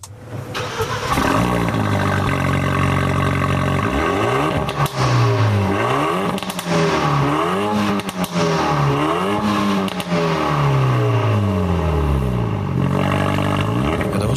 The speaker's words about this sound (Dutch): Ja, maar je, hoort het eigenlijk bij het starten al dat dit een auto is die is gemaakt om te rijden. En niet per se om je buren blij nee, te maken dit, als, je, eh, als ochtends start.